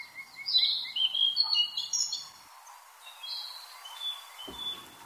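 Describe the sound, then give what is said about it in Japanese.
A blue-and-white flycatcher, a sparrow-sized Old World flycatcher with lapis-blue head, back and tail and white breast and belly, sings a run of clear, varied, mellow and complex whistled phrases, louder at first and then softer, with a faint steady background hiss and no voices. “オオルリはヒタキの仲間スズメくらいの大きさの鳥です頭から背中尾までが名前の通りルリ色胸からお腹が白くとても綺麗な鳥です複雑でまろやかな音質のよく通る声でさえずります”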